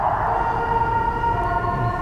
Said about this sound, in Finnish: hälytysajoneuvo.